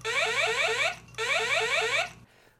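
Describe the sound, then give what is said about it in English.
Two loud bursts of rapid, warbling electronic zaps from a Photon toy laser gun as its trigger is pulled, each lasting about a second with a short pause between, over a steady low hum. “But just to hear that sound again when you push pull that trigger,”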